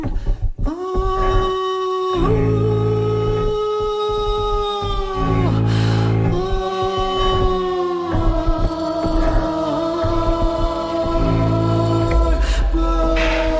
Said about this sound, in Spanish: Lo que están oyendo es una fusión de flamenco y tecno